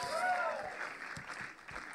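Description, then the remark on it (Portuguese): A church audience claps steadily in a sustained wash of applause for the band and volunteers, moderately quiet, with a brief whistle-like tone rising over it near the start. “Vamos também dar uma salva de palmas à nossa banda e a todos os nossos voluntários”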